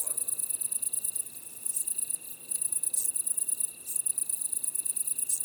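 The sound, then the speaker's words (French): A dense chorus of great green bush-crickets, Italian tree crickets, splendid bush-crickets (decticelle splendide) and wood crickets. High-pitched buzzing trills are layered together and pulse almost continuously, with a steady fainter tone underneath and a couple of brief lulls. “Grande sauterelle verte, grillon italien, decticelle splendide, grillon des bois.”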